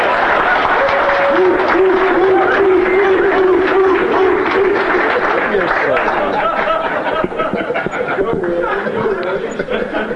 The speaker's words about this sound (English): Gentlemen, uh, the question was to our rather shy but esteemed speaker. I think that a thorough round of applause may help him to get over there.